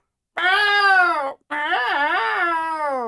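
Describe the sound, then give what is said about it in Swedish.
A person imitates how an unhappy cat would yowl if taken home to a city apartment: two long, loud, whining wails, the second rising and wavering in pitch before trailing off. “Men alltså, tar hon hem den där katten till lägenheten i stan, då kommer det låta så här.”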